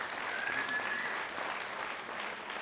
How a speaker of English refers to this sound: That, that applause is for her because she puts up with me and these other three.